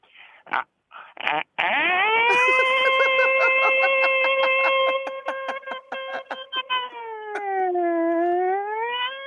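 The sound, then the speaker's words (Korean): After a few short vocal bursts, a voice holds a long, steady wailing tone that slowly dips and rises in pitch, imitating the civil defense air-raid siren that sounds at the start of a civil defense drill, with faint clicks and breaks running through it. “민박이 어떤 소리 말씀, 말씀, 말씀하시는 민, 민, 민방위 처음에 사이렌 울리기”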